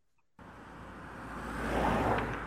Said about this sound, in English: I got into the car again and drove on slowly.